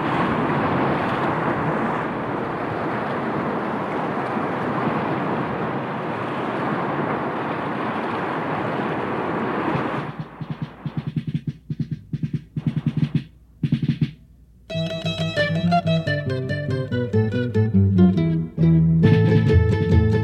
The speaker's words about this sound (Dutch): Nee, nu geen gezang en trommels, maar het geraas van wind en golven. Maar dat was genoeg om de vrees aan te jagen.